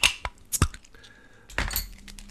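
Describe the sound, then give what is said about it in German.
Rustle and crinkle of relatively thick packing paper wrapped around a beer bottle as the paper is opened at the top, with sharp clinks and a brief release as the bottle is opened, no voices. “Da merkt ihr schon, das ist eine Flasche, die ist eingepackt in relativ dicken Packpapier, also was auch da Besonderes.”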